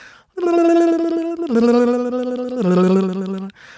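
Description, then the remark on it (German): A voice imitates a harp with rapid tongue flapping, producing a loud, warbling trill that steps down through three sustained notes over about three seconds. “Und ich mache damit gerne die Harfe oder man kann auch Balalaika damit spielen.”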